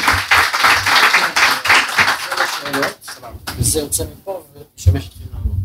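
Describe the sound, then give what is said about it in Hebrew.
A burst of audience applause, dense and steady clapping for a few seconds, then thinning out as a man begins speaking over the last scattered claps. “עכשיו, אה, כן, מחיאות כפיים מגיעות”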